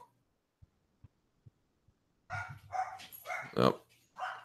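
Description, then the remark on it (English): After a quiet stretch of soft, evenly spaced thumps, dogs break into a run of loud barks in quick succession, with a brief spoken exclamation mixed in. “here are my dogs.”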